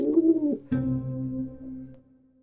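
A pigeon coos, two soft, throaty phrases with a brief pause between them, the second a longer rolling warble that fades out.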